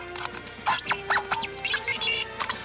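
Short bursts of squeaky, chirping electronic sound effects from a Kenner Star Wars Imperial Troop Transporter toy, several quick warbling blips in a busy cluster, fairly loud with a steady hum underneath and no talking.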